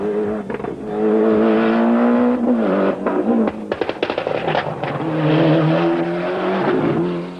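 A rally car engine, driven by Bruno in a morning stage in a car set up by and for him, revs hard at speed, its pitch climbing and dropping through gear changes, with brief crackles and a sustained, loud roar throughout.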